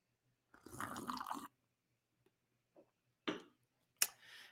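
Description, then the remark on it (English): A noisy slurp of coffee lasting about a second, then a few quiet clicks and two sharper knocks, like a mug being handled and set down. No one speaks. “Let me get a sip of this coffee for this part.”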